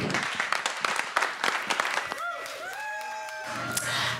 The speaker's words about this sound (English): so uh, without any further ado please join me give a big round of applause